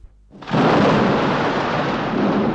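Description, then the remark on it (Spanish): A thunderous crash as the hill of Hamelin splits open like two great stone doors bursts in after a brief quiet moment, then holds as a loud, steady, deep roar to the end, with no voices. “la colina se abrió con enorme estrépito, como dos grandes puertas de piedra.”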